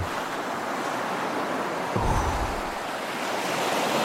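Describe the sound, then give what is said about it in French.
Steady ocean surf washes onto a sunny beach in a broad, continuous hiss, with one fuller wave surge breaking around the middle before settling back into the constant roar of the shore. No voices. “Des vagues, la plage, le soleil.”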